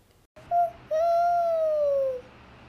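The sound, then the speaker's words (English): An owl hoots twice, a brief note followed by a long, drawn-out call that slowly falls in pitch, clear and fairly loud over a quiet background. “Thank you, owl.”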